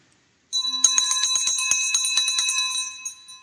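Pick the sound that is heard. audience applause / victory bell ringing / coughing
victory bell ringing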